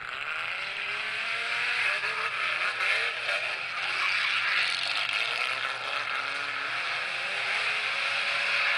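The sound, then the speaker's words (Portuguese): A six-cylinder rally car engine roars continuously and loudly for several seconds as the car slides sideways, its gritty, revving tone rising and falling slightly, with no voices over it. “E o ronco tá. dos seis Fa cilindros não tem igual.”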